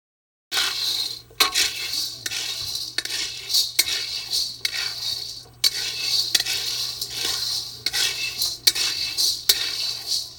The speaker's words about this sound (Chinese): 是的，你听到的这个声音呢，就是拿了一个小的平底锅，就炒豆子炒起来的声音。然后呢，他一直炒，一直炒，一直炒，这个吼要用很小的火，啊，用很小的火，然后手工在那边炒豆子的声音。